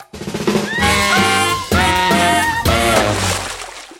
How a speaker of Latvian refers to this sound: Jā, tas skan signāls, ka atbildi ir nepareiza.